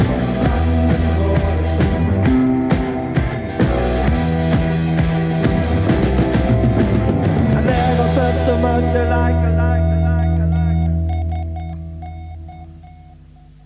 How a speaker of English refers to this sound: You heard the little Morse code at the end. Of course, that was SOS uh, you know, uh, adding to the apocalyptic sound.